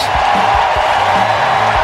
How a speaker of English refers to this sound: ovation is a standing ovation for Nationals first baseman Ryan Zimmerman as everyone stands and applauds